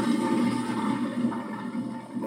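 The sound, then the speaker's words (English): A loud, forceful toilet power flush roars steadily for a couple of seconds, a dense rush of swirling water with no voices over it. “Oh, it sounds like a power flush.”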